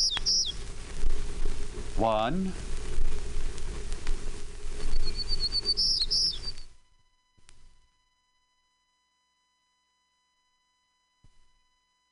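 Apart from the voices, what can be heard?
townsend's warbler song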